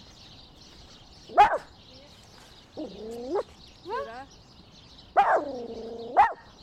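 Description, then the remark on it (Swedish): A dog named Tyra lets out a couple of sharp barks interspersed with high, drawn-out whines and yelps, while a person speaks briefly over a steady outdoor hiss. “Och nu har Tyra börjat eh, ge ljud ifrån sig här också.”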